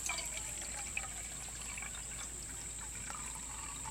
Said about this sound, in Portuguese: A mão pega uma caneca de ferro e coloca sobre o solo. Abre uma garrafa verde e enche a caneca de água.